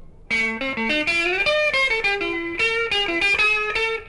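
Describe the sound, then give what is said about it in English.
An electric guitar played through a Vox wah-wah pedal rocked forward with the foot, giving a bright, sharp, cutting tone as a short melodic run of distinct notes plays steadily and alone. “When the foot is rocked forward, the guitar sound becomes sharp.”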